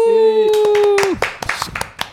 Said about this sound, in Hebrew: מחיאות כפיים, כבוד, כבוד. אני מרגיש שיש קהל